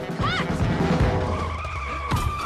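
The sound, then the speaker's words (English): A record needle scratch, a loud, abrupt screeching swipe that rises sharply at the start and then drags into a harsh, grinding squeal with no voices over it. “like rip the record needle off the record and then, uh, oh, now we're paying attention to this one moment because the music slammed on the brakes, and that's every cue.”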